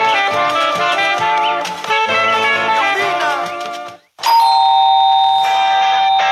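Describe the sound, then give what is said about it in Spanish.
A loud electronic doorbell, used as a Radio San Martín station jingle, rings out a bright, bell-like chime melody of several notes, stops briefly, then rings again with long sustained tones. No one speaks. “Señor, señora, al toque de puerta, la respuesta es, yo escucho Radio San Martín.”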